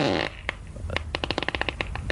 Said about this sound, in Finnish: Tämmöinen tota, viiden minuutin napakka kooste. Pieruja.